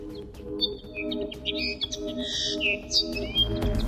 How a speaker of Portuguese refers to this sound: O cantar do Pinta Roxo, para ouvir daqui a pouco na rubrica Os Nossos Animais Selvagens.